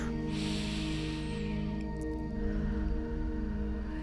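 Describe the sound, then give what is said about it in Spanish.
A slow, deep breath drawn in and then released in a long, softer exhale, taken after an invocation and petition, heard alone over a steady, low humming drone in the background. “Y con esta invocación y esta petición hago una respiración profunda.”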